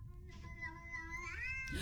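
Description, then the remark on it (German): A cat in a viral online video lets out a single long, drawn-out meow with a rising and falling pitch, fairly loud, over a low background rumble, with no talking. “Und es ist ja so eine Katze, die man so mit dem...”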